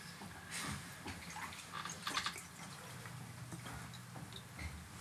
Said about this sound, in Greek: Απ' την βρύση είναι. Ναι, ναι. Απ' την κρύα βρύση.